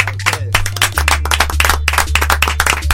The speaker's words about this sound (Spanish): Así que nada más que agradecerlos uno por uno a todos ustedes por haber venido, por haber sido parte de estos primeros 100 viajes. Un aplauso muy, muy, muy grande para todos ustedes.